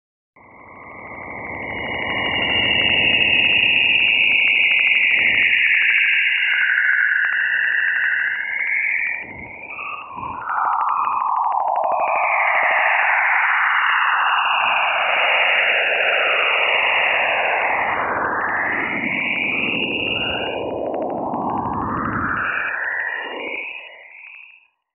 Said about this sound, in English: But I do want to play you a clip from the track Juno Musical Tones from Jupiter Waves Perijove 4, which I think would really set the stage if you're looking for a soundtrack for your haunted house or virtual party this weekend.